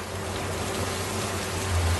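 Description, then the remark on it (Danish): Heavy rain pours down at a harbour in a steady, dense hiss that fills the whole clip, with a low continuous rumble underneath and no voices. “Imens Ophelia står modløs i den tykke regn,”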